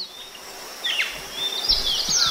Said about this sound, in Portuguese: E é com esses sons aí de pássaros, com essa fauna que a gente encerra mais uma semana.